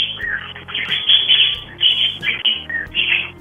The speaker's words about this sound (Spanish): Oye, tienes muchos pajaritos, ¿verdad? Sí, muchos.